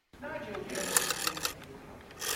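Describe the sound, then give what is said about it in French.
A rotary telephone dial whirs and clicks mechanically as it's turned to dial a phone number, a quick run of crisp ratcheting ticks with brief louder snaps, lasting a couple of seconds. “Qui a inventé ça en vrai Qui a inventé le téléphone où t'es obligé de tourner une, une roue pour composer un numéro de téléphone C'est la pire invention.”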